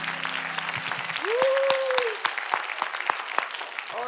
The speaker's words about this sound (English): Would you clap your hands as you're seated this morning?